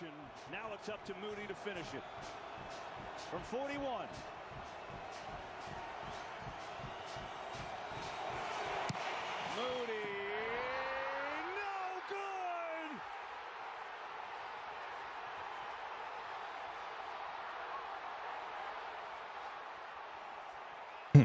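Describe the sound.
An American football stadium crowd cheers a special teams play against the 49ers in a loud, steady roar, punctuated early on by rapid rhythmic claps or thuds and a few shouted voices, then holding as a dense wash of noise to the end.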